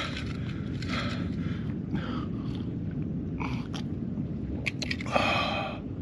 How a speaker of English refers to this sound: Today we are in the desert. I finally have my hydration. Please pretend you didn't see the shadow of my camera in that last dramatic shot when I was getting my first sip of Monster.